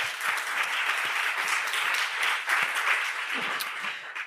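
Steady audience applause fills the whole stretch, a dense wash of many hands clapping at a consistent loudness that tapers slightly at the very end, with no voices over it.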